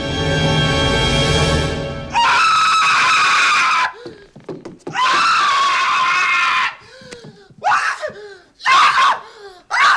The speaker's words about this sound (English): When he does, Actor Daniel Stern lets out one of the funniest sounding screams I've ever heard in a comedy, thanks in no small part to the generous build up and then silence provided by Williams.